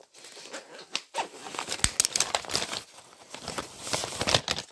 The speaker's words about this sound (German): Ey, ich muss meinen Stift spitzen, dieser Katastrophe.